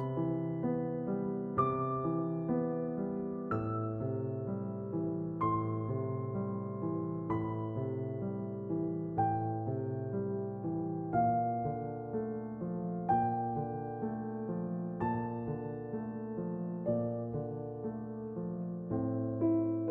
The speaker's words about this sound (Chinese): 你们先听一下音乐。